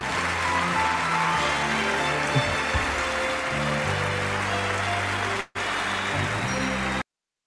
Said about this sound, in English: And look at Morgan's clapping for him right there. He's not upset because Tom won if you are watching the live version.